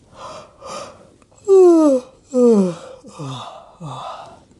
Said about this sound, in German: Sie gähnt ganz lange.